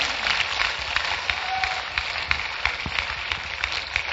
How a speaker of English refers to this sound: Clap for Jesus.